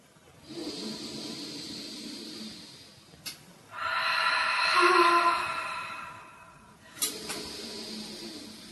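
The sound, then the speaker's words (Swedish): Slow, deep breaths with no talking: a long airy inhale, then a heavier, louder exhale, repeated in a steady rhythm with brief clicks between. “Och så andas du som du gjorde förut, mm.”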